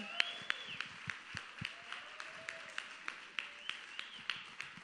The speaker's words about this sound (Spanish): Un aplauso para Monse.